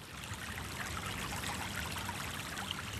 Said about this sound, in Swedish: Och så är det en slingrande bäck som rinner. Se så vackert.